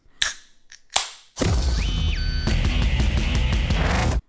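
A beer bottle is pried open with two sharp snaps, followed by a loud burst of sustained music that fills the rest of the moment.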